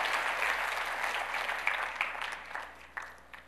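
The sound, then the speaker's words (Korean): A church audience applauds in a steady wash of dense clapping that gradually thins and fades, with a few sharper individual claps standing out toward the end. “우리 다시 한번 박수로.”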